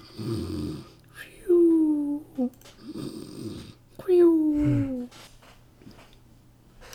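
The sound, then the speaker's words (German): A voice imitates two snoring kobolds lying curled up on the floor: two cycles of rough, rattling inhales each followed by a whistly, descending exhale, fairly loud, with quiet pauses between. “Ja, wieder zu du trittst äh, zwischen zwei schnarchende Kobolde, die auf dem Boden liegen, so ein bisschen in sich ein, inzwischen so zusammengerollt.”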